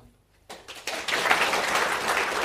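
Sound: spontaneous audience applause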